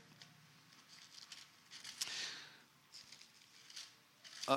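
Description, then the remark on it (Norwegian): Soft papery rustling as Bible pages are flipped back to the Book of Ezra, several quick swishes and crinkles spread across a few seconds, fairly quiet, with a faint murmur in the background. “Bare blar vi litt tilbake.”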